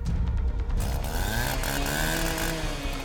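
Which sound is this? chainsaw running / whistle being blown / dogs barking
chainsaw running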